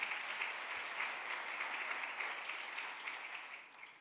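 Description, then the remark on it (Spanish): Sustained, dense applause from many hands, another loud round of applause for "papá", a steady crackling roar of clapping that holds strong for several seconds before tapering slightly at the end. “Dele otro aplauso fuerte a papá.”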